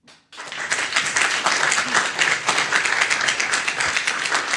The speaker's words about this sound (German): So, und jetzt möchte ich das mit Applaus hören. Wer glaubt an die Geschichte oder wer nicht? Wer an die Geschichte glaubt, der klatscht jetzt.